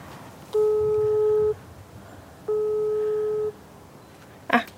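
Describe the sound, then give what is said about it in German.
Two steady, sustained ringback tones of a call to a mobile phone, each lasting about a second with a pause between, heard through a phone line, followed by a brief clatter at the end. “Jetzt höre ich es klingeln.”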